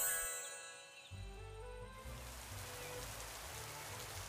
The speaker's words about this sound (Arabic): غطت غيوم رمادية السماء وبدأ المطر بالتساقط